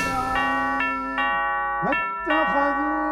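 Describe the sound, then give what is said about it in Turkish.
A house doorbell is pressed three times in quick succession, each ring sharp against a steady ringing tone, followed by a voice chanting a Muslim prayer inside the house. “Ardı ardına üç kez dile basıyorum.”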